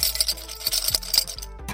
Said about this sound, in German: Hier sind ganz viele Kronkorken in dem Glas. Die werden hier wahrscheinlich sofort reingeschmissen, sobald jemand ein Bierchen bestellt.